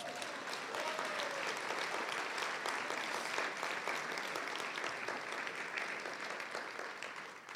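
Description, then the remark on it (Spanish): An audience applauds steadily for several seconds after a prayer, a dense, even wash of many hands clapping that holds at full strength before tapering slightly at the end. “Démosle un aplauso, hermanos.”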